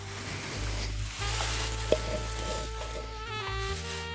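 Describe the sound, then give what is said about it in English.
Tissue paper wrapping a gift crinkles and rustles in soft, continuous bursts as it is pulled apart during unwrapping, over a steady low electrical hum, with one brief sharper crackle midway. “Tissue paper.”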